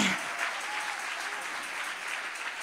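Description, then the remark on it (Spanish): An audience applauds steadily, a dense crackle of many hands clapping at an even, sustained level from start to finish, with a faint voice briefly audible at the very beginning. “Y si hay alguien aquí que lo cree, que le dé un aplauso fuerte.”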